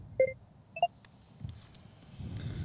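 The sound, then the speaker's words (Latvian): Two short electronic phone-call dialing tones sound about half a second apart, clear, followed by a low background rumble with no voices. “Tur sauc, kas notiek? Sauc, sauc. Nesauc. Calling.”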